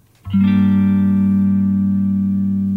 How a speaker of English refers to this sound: Oh, this song. And oh. ….